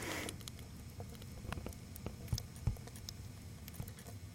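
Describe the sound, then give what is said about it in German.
Quiet drips tick irregularly, with a few sharper plops standing out, as a leaky water tap keeps dripping into the drain during a baby's birth. A low background rumble sits underneath and nobody speaks. “Außerdem tropft schon die ganze Zeit der Wasserhahn.”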